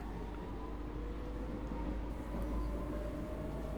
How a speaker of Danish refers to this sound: hold da op, hvor er her egentlig stille. Altså i betragtning af, at toget er fyldt med mennesker. Faktisk er han næsten helt stille i togvognen. Jeg kan nærmest ikke høre andet end toget.